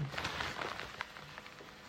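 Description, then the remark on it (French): Steady, crackling sizzle of a croque-monsieur with ham and emmental frying in a pan, with a continuous fizzing hiss and scattered little pops, fairly quiet, with no voices. “Là, vous entendez peut-être le premier est en train de faire.”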